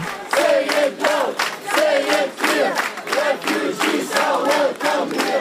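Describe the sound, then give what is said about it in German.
A large crowd of several hundred Munich residents cheers loudly and continuously to welcome refugees arriving by train from Vienna in Munich in summer 2015, voices rising in repeated rhythmic shouts and chants, with a dense wash of many people calling out together throughout. “Und wieder werden sie von mehreren hundert Münchnern freundlichst empfangen.”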